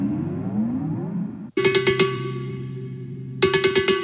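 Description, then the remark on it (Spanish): Mambo music plays loudly with a band, and bright cowbell strikes hammer out a quick rhythmic pattern, with a brief break and a second burst of cowbell hits near the end. “Su nombre es sinónimo de leyenda. Su género, el mambo.”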